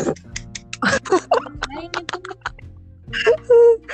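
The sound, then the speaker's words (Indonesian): A series of sharp hand claps at an irregular pace, fairly loud, with brief bits of a voice between them. “Kedengeran gak ya kalau gue tepuk tangan begini?”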